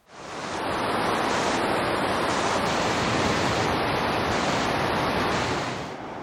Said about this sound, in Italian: Finalmente le cascate.